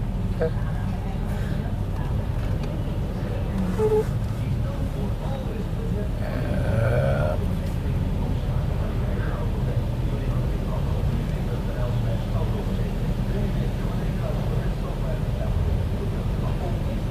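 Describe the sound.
An automatic car wash runs with a constant loud, low rumble and rushing whoosh, heard from inside the car, with a few brief clunks and faint muffled voices underneath.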